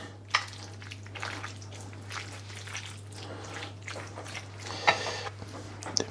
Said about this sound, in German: Ich glaube, ein bisschen Wasser rein.